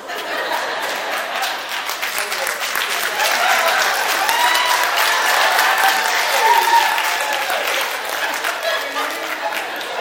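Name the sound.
audience clapping and applause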